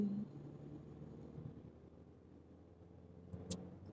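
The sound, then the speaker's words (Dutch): A steady low rumble of a car driving in traffic, heard from inside with a soft hiss of road noise, and one brief sharp click near the end. No one speaks. “Eh, en ik was even op het verkeer aan het letten.”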